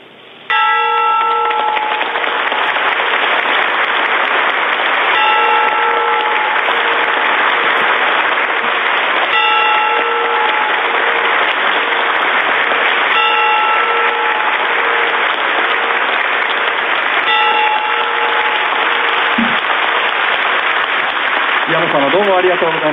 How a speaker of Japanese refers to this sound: ちょうど打鐘が終わって、はい、まあ、あの5回、えー、鐘を叩いていただくわけですけども